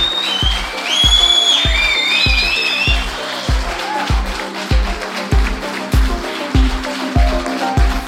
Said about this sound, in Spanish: montón de amigos que han querido participar y ver este programa en directo que ahora mismo estamos desarrollando en este centro Ibercaja aquí en Logroño, así que yo pediría un fuerte aplauso a todos vosotros que estéis aquí.